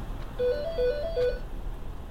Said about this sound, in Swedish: Klockan tio på morgonen ringer det i trerummaren i Solna.